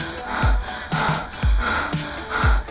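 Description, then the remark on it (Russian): Heavy, excited breathing with sharp gasps, repeating in a quick rhythm about once a second, fairly loud, with no talking. “дыши ровнее. Не могу. Он шикарен.”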